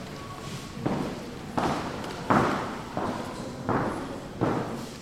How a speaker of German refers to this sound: Ein großer, hallender Raum, langsame Schritte und leises Flüstern. Ja, so klingen Museen. Und was habe ich diese Geräusche vermisst?